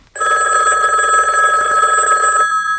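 A telephone rings in one sustained, loud electronic burst of about two seconds, its bright warbling tone cutting off abruptly and leaving a brief quiet tail, before answering machine messages are played.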